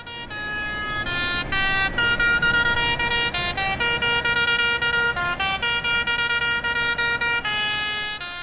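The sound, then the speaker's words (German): Many tractor horns blare together in a dense, continuous chorus from a convoy of about 50 tractors driven by farmers taking to the streets in Basel, their overlapping tones shifting in short bursts and sustained blasts, loud, with no talking. “Heute sind jetzt auch in Basel die Bauern auf die Strasse und zwar in einem Konvoi von etwa 50 Traktoren.”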